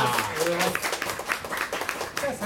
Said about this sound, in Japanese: ということでじゃあえっ、と第一部終了する社長の方に多くの拍手をよろしくお願いします。ありがとうございますありがとうございました。